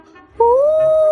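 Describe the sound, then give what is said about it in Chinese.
A voice imitates a female ghost's wail, made at a window with the mouth covered: one loud, drawn-out hooting moan that slides upward in pitch, then holds a steady, eerie tone for nearly a second. “捂住嘴巴，故意发出呜呜的声音，营造出女鬼出来的效果。”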